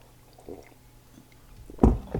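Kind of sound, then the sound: food or drink, sipping hot tea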